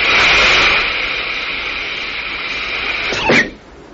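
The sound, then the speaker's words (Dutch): Rockets number 2 and 3 of a spacecraft fire to dodge a meteor swarm: a loud, steady roaring rush with a hissing whine running through it, ending in a sharp burst before the roar cuts off into a low rumble. “Raket nummer 2 en 3.”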